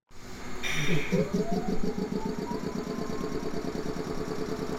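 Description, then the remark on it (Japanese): A train pulls away from platform 2, bound for Hekinan, at a station on the Meitetsu Mikawa Line in Japan: a loud, steady low rumble with quick rhythmic pulsing, and a motor whine that climbs steadily in pitch as it gathers speed. “まずはねえっ、ー、とラジオネームなべおにさん名鉄三河線上衣駅碧南方面2番線の音”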